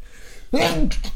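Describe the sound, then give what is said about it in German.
A single sharp sneeze bursts out, a quick breathy intake followed by an explosive hissing release that fades in two short trailing puffs. “Entschuldigung, Gesundheit.”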